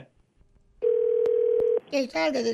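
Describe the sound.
A single steady ringback tone on an outgoing phone call to a couple, a low even hum lasting about a second, then cutting off as a voice starts talking.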